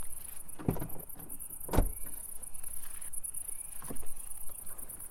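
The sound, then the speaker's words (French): Outdoors at night under a full moon, amid fields near Miramas, people climb out of cars loaded with baskets: three separate dull thuds and rustles of doors and movement, spaced a second or two apart, over a steady high chirring of insects. “On descend des voitures, chargées de paniers.”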